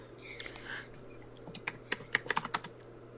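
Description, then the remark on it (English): Rapid clicks of keys being typed on a computer keyboard, fairly crisp, coming in an irregular burst of about a dozen strokes over a low steady hum, with no talking. “you don't hear me typing.”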